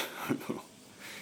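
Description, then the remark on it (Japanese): A steady, high-pitched buzz of cicadas fills the background at a house in the mountains in Ōita, Japan, a continuous droning chorus, broken by a couple of brief low, breathy sounds. “セミの鳴き声うるさいですね”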